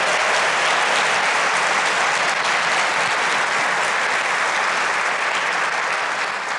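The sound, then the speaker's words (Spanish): A church audience applauds loudly and steadily for the Lord, a dense wash of many hands clapping at once that fills the whole stretch without pause, with no voices standing out. “¿Cuántos dicen amén? Dáselo al Señor.”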